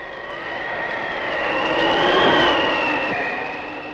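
A mighty rushing wind roars steadily, swelling to a peak midway and easing off again, with a faint high whistling tone running through the dense, continuous rush.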